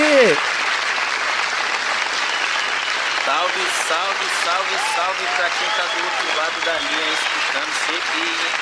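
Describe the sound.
Steady crowd applause fills the whole stretch, a dense, even wash of clapping that stays loud throughout, with voices talking and calling out over it.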